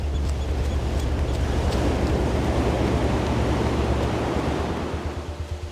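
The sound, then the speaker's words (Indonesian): A steady, broad wash of ocean surf rolls on with a low rumble underneath, easing slightly toward the end. No voices are heard. “Aku masih bisa mendengar bunyi ombak yang datang dan pergi.”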